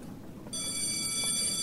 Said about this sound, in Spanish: Ya terminando la jornada, pues, sonó el timbre y todo el mundo se levantó de sus sillas para irse.